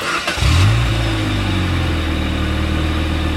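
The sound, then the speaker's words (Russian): A car engine running on Rolf motor oil turns over and catches near 0.5 seconds, its pitch rising briefly in a quick rev before settling into a steady, loud idle with no voices. “Так звучит двигатель, работающий на моторном масле «Рольф».”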